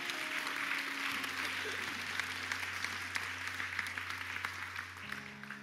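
A crowd applauds steadily for several seconds for those who have just taken a step of faith in Jesus Christ, a dense wash of clapping with sustained low musical tones underneath that shift in pitch partway through.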